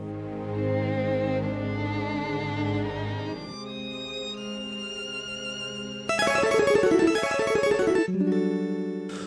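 Sustained orchestral-style music with layered tones, shifting into a denser, louder passage with rapid rhythmic pulses near the end, like a dramatic video game soundtrack piece; a piece from the PlayStation 3 game Killzone 3. No voices.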